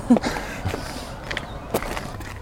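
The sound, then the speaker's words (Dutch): Footsteps of people walking outdoors back to the station, a few distinct scuffing steps at an uneven pace over a steady background hum, fairly quiet. “Inmiddels lopen we terug naar het station.”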